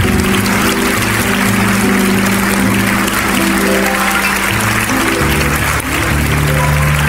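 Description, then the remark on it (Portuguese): An audience at a church service applauding during an altar call while people kneel in prayer, a dense, steady wash of loud clapping that fills the whole stretch without pause, with low sustained musical tones humming underneath. “Ô oh, glória, vamos aplaudir mais.”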